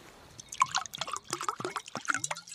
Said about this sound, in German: Ähm, aber den würde ich dann doch gerne mal einschenken jetzt.